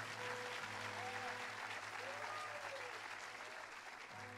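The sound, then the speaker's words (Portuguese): Sustained applause from a large crowd fills the space, a steady dense clatter of many hands clapping at once, with faint tonal hums underneath and no clear speech. “Não, se é para aplaudir, aplaude com vontade, que eu aproveito e bebo água.”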